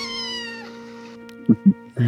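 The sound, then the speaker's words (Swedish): A cat meows in a long, drawn-out, wavering cry that fades, followed by a few short, louder chirping mews in quick succession, with no talking. “Och katterna förstås.”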